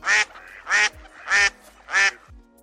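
Four loud, nasal duck quacks ring out in a steady rhythm, evenly spaced about half a second apart, with no talking underneath.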